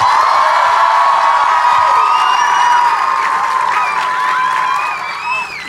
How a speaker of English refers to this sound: Okay, you guys give her a huge, gigantic hand.